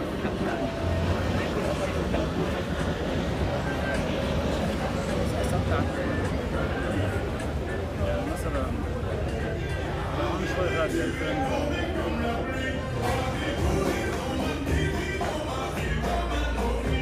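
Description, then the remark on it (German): A busy seaside ambience in Beirut, Lebanon: a steady wash of surf-like noise with music playing, indistinct crowd voices, and the low rumble of aircraft passing, all continuous and fairly loud throughout. “Also ich habe Musik gehört und Flugzeuge und wahrscheinlich auch sowas wie ein Meeresrauschen im Hintergrund, ne?”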